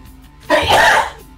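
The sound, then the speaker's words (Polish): A single loud sneeze, bursting out suddenly and fading after about half a second, with no talking around it. “Przepraszam, emocje. Do alergika.”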